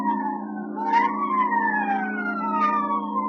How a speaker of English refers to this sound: Hollywood after midnight is like any other city after midnight. Night moves in and the city becomes hushed and stealthy. The nightclubs close up one by one, but now and then the police whistle and the prowl car siren serenade the sleeper.